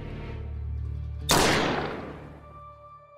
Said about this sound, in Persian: از شدت صدای بلند شلیک گوشام سوت میکشید دیگه هیچ صدایی رو نمیشنیدم